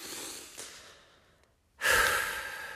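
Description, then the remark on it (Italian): A slow, deep breath in through the mouth, a brief pause, then a louder, forceful breath out, with no talking. “Ho messo il telefono da parte, inspirato,”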